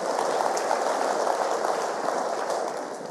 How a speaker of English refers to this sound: You know that that yes, we can give the Lord a round of applause. Absolutely, Amen.